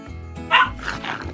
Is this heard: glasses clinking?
no